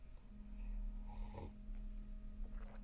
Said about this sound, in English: Sorry if you can hear my really ugly sipping noises.